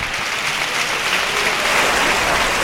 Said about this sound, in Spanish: Y carrerilla del rejoneador a los medios para saludar la ovación del público. Ahí está.